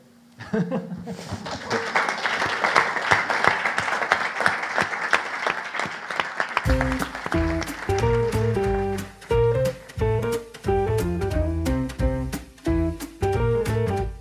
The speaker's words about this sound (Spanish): ¿Alguna más? ¿Les damos un aplauso entonces?